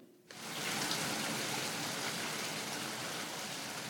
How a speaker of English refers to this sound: it's a rainy day here in Pittsburgh, huh? Just like every day. Every single day, yeah. Every single day of our lives here in Pittsburgh, it's a little rainy.